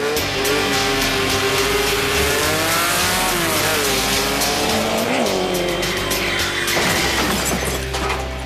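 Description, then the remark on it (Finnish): A racing car's engine revs hard and loud with tires squealing and skidding, the engine pitch rising and falling continuously, with no voices. “äänet eivät kahoita, kehoita kaahailuun, vaan pikemminkin meidän on tarkoitus tässä nyt äimistellä matkailun kautta liikennekulttuuria.”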